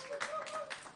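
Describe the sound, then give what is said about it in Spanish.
A short, fairly quiet burst of applause from a small group in the room, with dense overlapping claps and a faint voice or tone mixed in, at the opening of the show Cultura Secuencial. “fuerte aplauso,”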